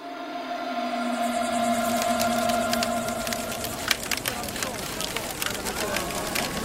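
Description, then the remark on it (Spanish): A large bonfire at the Dakar Rally, lit each night in the Arabian desert, crackles steadily, with sharp irregular pops and snaps of burning firewood over a low roar; an early steady hum fades as the crackling grows busier. “De nuevo y por última vez, escuchamos el crepitar de la leña al arder en la gran hoguera del Dakar.”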